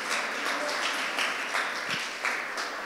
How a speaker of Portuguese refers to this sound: Pode aplaudir Jesus, gente?